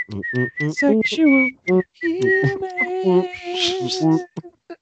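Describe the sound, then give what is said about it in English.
Someone whistles a short melody, the notes breaking up as bursts of laughter and voiced hums cut in between phrases. “You can't laugh and whistle at the same time.”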